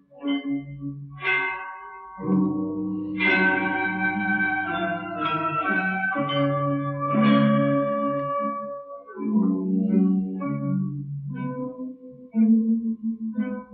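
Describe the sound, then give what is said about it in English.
Ancient Chinese bronze chime bells (bianzhong) ring out a slow melody, each struck note blooming with bright overtones and long, overlapping decays that shimmer and fade between strikes, with no voices. “Chime bells, bianzhong, are the most majestic and holy ancient instrument in China.”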